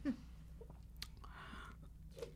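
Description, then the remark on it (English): Loud crunching and chewing of the last slivers of ice from a finished drink, a few sharp cracking bites followed by wet grinding, with no talking. “oh, you're getting last little slivers of ice.”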